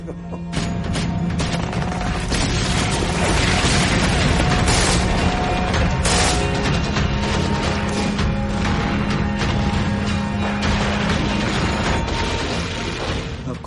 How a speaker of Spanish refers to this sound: Los alemanes estaban apostados en las colinas y cuando las lanchas de desembarco empezaron a llegar, abrieron fuego con ametralladoras, fusiles, morteros y artillería ligera.